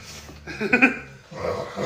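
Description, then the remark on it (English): A dog named Bella growls low and rough, swelling briefly in the middle before a second rumbling stretch, with no talking over it. “That's a dog growling.”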